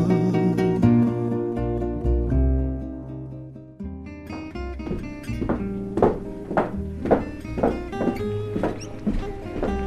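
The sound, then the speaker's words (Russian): Footsteps thud down an echoing, narrow wooden staircase of a typical Amsterdam stairwell toward a noisy street, in a steady, even rhythm of about eight heavy steps, beneath a sustained tonal drone of music. “по гулкой узкой деревянной лестнице типичного амстердамского подъезда я спускаюсь на шумную улицу.”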